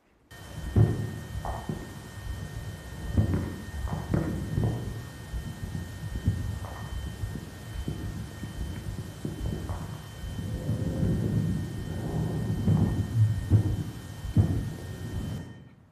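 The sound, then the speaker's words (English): Two faint, steady high-pitched otoacoustic emissions from a normal human ear hold constant throughout, above low rumbling, soft thumps and rustling body noise: microphone hiss, stomach gurgling, heartbeat and rustling clothes. No one speaks. “This you will hear two emissions at high frequencies coming from a normal human ear.”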